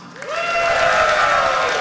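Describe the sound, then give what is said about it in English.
A live crowd cheers and whoops to cast a vote on a pick, the noise swelling quickly into a loud, sustained roar of voices for a couple of seconds, with a rising collective 'ooh' riding on top. “How many of you would take David Johnson here? Ooh. All right, crowd's starting to warm up.”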